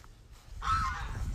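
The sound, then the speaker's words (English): A goose that is following the speaker lets out a loud, nasal honk, a single drawn-out call rising over a low rumble of outdoor background noise. “this goose is following me. He won't be quiet.”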